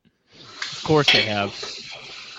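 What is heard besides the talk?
running water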